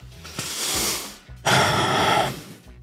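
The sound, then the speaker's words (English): Heavy mouth breathing after eating spicy food: a drawn-out airy breath followed by a louder, rougher one, both harsh and hissy, with no talking. “Breathing through my mouth is it's the, the, wrong thing to do, uh, by the way.”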